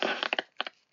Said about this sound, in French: Oula, ça crépite de ton côté là. Euh, là, je t'entends à peine.